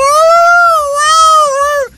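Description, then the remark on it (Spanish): A person imitates a dog howling: one long, loud, high-pitched wail that wavers gently up and down for nearly two seconds before dropping off abruptly. “se escuchaban aullidos de un perro”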